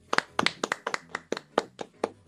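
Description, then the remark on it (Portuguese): A short run of hand clapping for the character Lucas, about a dozen crisp claps in a quick, steady rhythm, each with a slight doubled snap, with no talking. “Palmas pro Lucas.”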